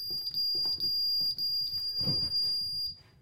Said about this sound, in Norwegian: Her er det alarm, skal vi se. Skal jeg ikke se den koden høyt.